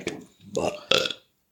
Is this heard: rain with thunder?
no